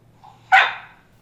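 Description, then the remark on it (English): A single sharp, loud bark from Ginger, a cattle dog, in central Missouri, USA, preceded by a brief soft whine, then quickly fading into quiet with a low steady hum underneath. “Ginger, my cattle dog and Hot Topic co host.”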